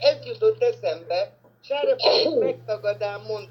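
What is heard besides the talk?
sneeze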